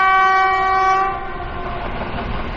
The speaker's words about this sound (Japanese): 今回の中国メロディーも引き続き、春に向かう列車に乗って、心を揺さぶるメロディーに合わせて、お花畑の中で春の魅力を楽しみましょう。